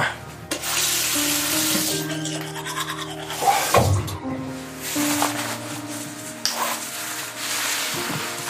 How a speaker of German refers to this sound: Aber jetzt gehe ich erstmal Zähne putzen.